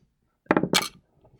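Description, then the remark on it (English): Dice are rolled in a game, clattering briefly in two quick bursts of sharp, bright clicks and rattles, lasting under a second, with no voices present; the roll lands on a five. “Okay, that's a four. Uh, sorry, a five on the dice.”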